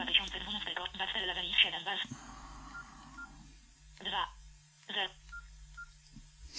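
Phone dialing tones ring out in a quick run of beeps as a call is placed to a Samsung Galaxy phone in an Android 4.1 demonstration, then a pause and a couple of separate tone bursts over a low steady hum.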